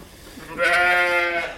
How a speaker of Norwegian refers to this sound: Det er ikke premie for oss å gjette hva dyret er som går rundt her inne. Det er og kan ikke være annet enn sau.